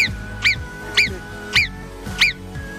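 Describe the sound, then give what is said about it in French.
A marmot whistles four times at a steady pace, played on Radio Mont Blanc, each call a sharp, piercing, slightly falling chirp, repeated about every half second over a low, steady background hum. “Sur Radio Mont Blanc, vous êtes invité à surveiller surtout l'arrivée de la marmotte. Lorsque vous l'entendez siffler comme ça,”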